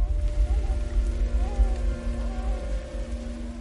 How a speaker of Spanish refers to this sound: Empieza a llover.